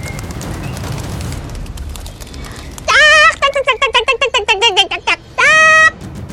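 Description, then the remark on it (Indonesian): A voice imitates animals: a drawn-out cat-like meow, then a quick run of short yapping barks, and another long meow, loud over a soft background. “Terdengar suara kucing. Terdengar suara anjing.”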